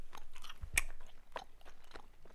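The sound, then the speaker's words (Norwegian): Close, wet chewing of soft marzipan candy near the microphone, with smacking mouth sounds and a brief louder bite near the start, continuing steadily with no talking. “Det blir mer smask.”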